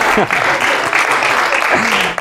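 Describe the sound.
An audience claps steadily for a couple of seconds, a dense, loud wash of applause with a few voices calling out underneath.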